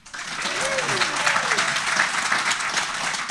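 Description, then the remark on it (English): Sustained applause from an audience at an annual investor conference held at sea, in the middle of the ocean, applauding the precious metals guests: a dense, steady wash of clapping lasting several seconds, with a few faint voices or cheers rising briefly within it. “Hey, by show of applause, who enjoyed having our precious metal guys uh, with us all week long?”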